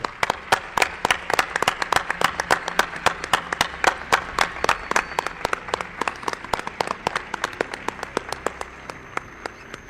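Audience applause welcoming a guest, an investigator from Extremadura, fills the whole stretch: a dense patter of many hands clapping at a steady, lively pace with no voices over it, easing off slightly toward the end.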